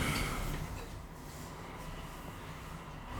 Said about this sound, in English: Uh, bloody hell. The train's going by.